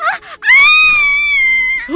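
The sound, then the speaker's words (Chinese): A woman lets out a terrified scream: one loud, piercing, high-pitched cry held for over a second at a steady pitch, with brief short vocal sounds just before and after it. “正想赶快上楼回到伊丽莎白身边，却在这时听到了伊丽莎白凄厉骇人的尖叫。”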